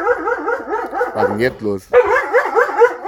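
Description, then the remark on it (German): A dog barks aggressively in a rapid, continuous string of sharp barks while wagging its tail; a man's voice cuts in briefly during a short pause before the loud barking starts again. “Das ist, das ist sehr schön aber wie er voll aggro äh, rumbellt und hinten mit dem Schwanz wackelt”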